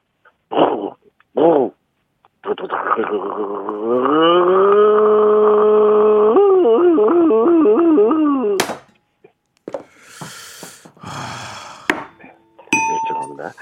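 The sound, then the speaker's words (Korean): A person vocally imitates a Vietnamese woman riding a motorcycle in Korea: a couple of short sputters, then a long sustained engine drone that rises in pitch and wobbles like revving, ending abruptly before scattered noises and clatter. “베트남 여성분이 한국에서 오토바이를 타고 가는 소리를 한번 해 보겠습니다.”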